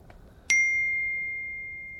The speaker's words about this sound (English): My phone just binged. Yo, the new Dune trailer came out.